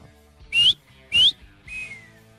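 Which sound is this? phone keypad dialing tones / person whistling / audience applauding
person whistling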